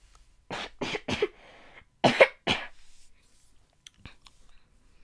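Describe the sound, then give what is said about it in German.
Several harsh coughs come in two quick bursts, three rapid ones then two more, followed by faint clicks and quiet mouth noises. No one speaks. “Ich muss kurz husten.”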